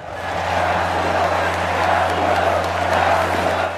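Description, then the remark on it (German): A large crowd in an arena roars and shouts continuously at a gladiator fight, a mob calling out to a gladiator, a dense wall of voices filling an open space, with a steady low hum beneath the noise. “Was man hier hört, ist eine Meute, die einem Gladiator zuruft.”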